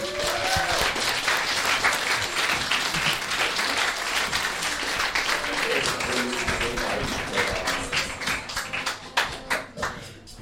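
An audience at a live comedy show applauds the start of the show's second part, a dense wash of many hands clapping that holds for about ten seconds, with a few sharper individual claps standing out near the end and faint voices beneath.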